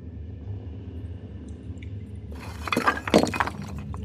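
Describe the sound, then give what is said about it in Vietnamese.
A low rumbling drone gives way to a sudden burst of cracking and breaking in a cave wall, with sharp crackles and crumbling debris of small stones and dust peaking briefly before settling back, no voices present. “trên vách hang đang xuất hiện những tiếng vỡ nứt Bên cạnh đó cũng bắt đầu có một vài viên đá nhỏ Kèm theo bụi mù rơi xuống”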